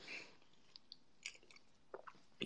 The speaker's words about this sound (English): Sorry, guys, I was so hungry, I had to find something to eat. So that's why I sound the way I sound.